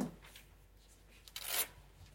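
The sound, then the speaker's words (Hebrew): A brief papery rustle and swish as two stiff book pages are accidentally flipped over together while looking for a passage in the Book of Jeremiah, moderately loud, preceded by a few faint soft rubbing sounds, with no talking. “לא, דפדפתי שתי דפים יחד.”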